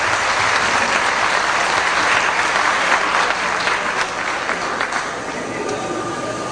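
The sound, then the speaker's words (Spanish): Sustained applause from an audience for the people who arranged and organized the event, a dense steady wash of many hands clapping at fairly even loudness, easing slightly toward the end with no clear voices on top. “Un aplauso por la gente que arregló y los que organizaron.”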